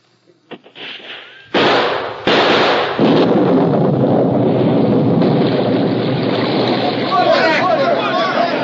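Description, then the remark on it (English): Three sharp, loud explosive blasts from a can of blasting powder go off in quick succession, then a steady, heavy roar of gushing water carries on to the end, with faint voices underneath. “Where's the water coming from?”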